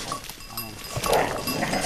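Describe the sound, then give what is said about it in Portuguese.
Dogs bark in short bursts amid a bleating herd of goats kept by a herder in the village of Sernadinha, an outdoor farmyard mix of animal calls with a steady background hiss. “É, é, ah, então os cães deixem o bicho.”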